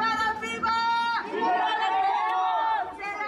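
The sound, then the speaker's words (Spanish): A large crowd of protesters in Mexico City chants loudly in unison, demanding that the city's Attorney General's Office arrest the public transport driver in whose vehicle a missing woman was last seen; many raised voices blend into a sustained, rhythmic call without a break. “se manifestaron para exigir a la Fiscalía General de Justicia de la Ciudad de México que sea detenido el chofer del transporte público”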